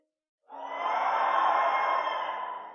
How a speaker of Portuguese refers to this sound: Gritos. Vamos dar um grito. Um, dois, três.